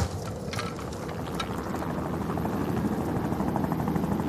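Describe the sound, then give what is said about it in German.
A second helicopter drones steadily overhead above two mountain climbers on a snowy mountainside, its thick low rotor throb and engine whine holding constant and fairly loud throughout, with faint mechanical rattling on top and no one speaking. “Der zweite Helikopter schiebt sich ins Blickfeld der beiden.”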